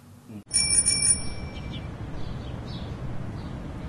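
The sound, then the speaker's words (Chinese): A bell in Wuhan strikes once with a bright, high, ringing tone that lingers and fades over about a second, set against a steady low rumble of background noise. “啊，钟声的这个响起呢，也让我们武汉整个恢复的生机，也恢复了原本往常的烟火气。”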